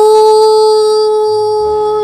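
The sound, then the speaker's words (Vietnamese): A voice imitates an elephant's trumpeting with one long, steady, loud tooting note held for about two seconds before it cuts off. “mà chú voi đã nhảy qua hàng rào một cú nhảy tuyệt đẹp với một tiếng kêu dài tu”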